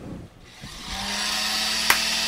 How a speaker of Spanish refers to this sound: Familia Quintero, haga sonar la licuadora.